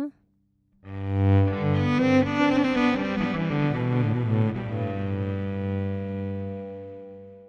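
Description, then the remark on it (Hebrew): After a brief pause, a cello plays sustained bowed notes while a delay effect repeats and layers them, so the tones overlap and smear into a rich, steady wash that lingers to the end. “ועם הדיליי זה יישמע ככה.”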